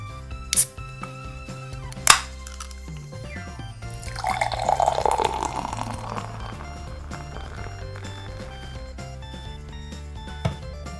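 A can or bottle of Orochi beer, made in collaboration with a sake brewery in Shimane Prefecture, is opened with two sharp clicks and a hiss, then the beer pours steadily in a gurgling, fizzing stream that settles into a soft bubbling. No one speaks.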